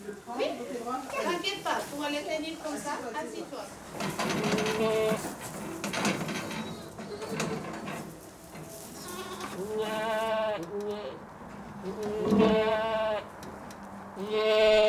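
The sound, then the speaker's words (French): Several goats on a farm that keeps about fifty to sixty milking goats bleat in wavering, nasal cries, some overlapping, fairly loud, with a murmur of human voices mixed in and a steady background hum. “Alors sur notre ferme, euh, on s'est limité à une bonne cinquantaine de chèvres, 50-60 chèvres maximum, en lactation.”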